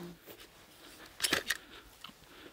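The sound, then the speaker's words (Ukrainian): A couple of quiet metallic clicks as takedown pins are pushed out from one side of a civilian AR-based carbine, clustered together midway through an otherwise near-silent moment. “Дивись, є отакі піни. Угу. Ти їх видавлюєш трохи так.”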